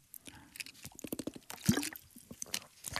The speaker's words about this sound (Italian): Questo è un tema enorme perché un tema, mi scuso, bevo un sorso d'acqua, perché è un tema